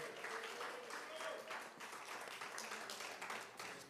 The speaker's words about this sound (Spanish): Bríndele ese aplauso al Rey de la Gloria en esta hora.